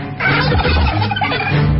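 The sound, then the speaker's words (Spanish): A turkey gobbles loudly, a rapid, rattling warble that fills the whole short moment with no other sounds around it. “el pavo y sus cadáveres mutantes siguen sueltos”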